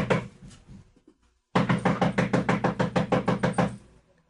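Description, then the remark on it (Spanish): Rapid knocking on the wooden door of a small house in San Blas, fairly loud: a short burst of raps, a brief pause, then a longer insistent run of about a dozen quick, even knocks. “Don Filiberto llegó y empezó a llamar a la puerta.”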